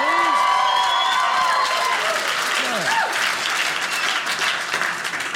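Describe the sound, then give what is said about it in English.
A large audience bursts into loud, sustained applause with whoops and cheers rising over the clapping in answer to a speaker's call to steak eaters, a dense wall of crowd noise that stays strong throughout. “Steak eaters, steak eaters, let me hear from you.”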